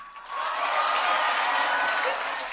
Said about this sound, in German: Einen großen Applaus für Hilde Dalig und Cornelius Obonia.